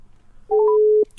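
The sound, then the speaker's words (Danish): A telephone ringing tone sounds once as a steady, mid-pitched electronic beep lasting about half a second, clear and fairly loud, followed by a brief faint click, as a phone call is placed to a guest. “Jeg tænker så bare, at vi ringer den op sådan her.”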